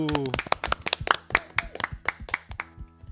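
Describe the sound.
A brief voice fades out, then a small group breaks into steady applause, distinct hand claps ringing out close by at a brisk, even rhythm for a few seconds.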